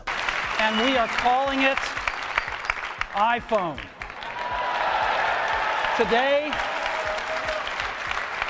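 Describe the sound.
Sustained crowd applause as Steve Jobs launches Apple's iPhone in 2007, a dense steady wash of clapping that swells after the first few seconds, with a man's voice speaking in short bursts over it.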